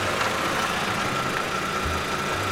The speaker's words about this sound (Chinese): 这时，有几辆帅气的跑车停了下来。